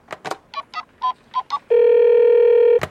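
A phone call being placed to Elise Busaglia, a former France national team footballer: a few clicks, a quick series of short dialing beeps, then one long steady ringing tone on the line before a final click. No voices.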